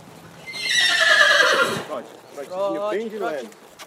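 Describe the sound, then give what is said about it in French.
A horse of the Casulo de Melo military police regiment, ridden by a soldier, lets out a loud whinny that descends in pitch for over a second, followed by a person talking briefly. “Et c'est comme ça que je me suis retrouvée à monter à cheval, en tongue, un micro à la main”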